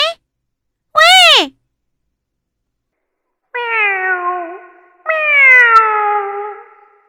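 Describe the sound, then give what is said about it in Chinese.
Kitten meows heard through a small telephone receiver, from two kittens quarrelling over a little fish: a clipped cry, a short rising-and-falling mew, then two long, drawn-out, whiny meows. The calls are high-pitched and loud, separated by silences. “话筒里传来小猫的叫声，吓了吱吱一跳。”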